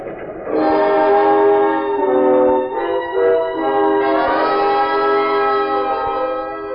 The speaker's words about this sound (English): The train's going too fast.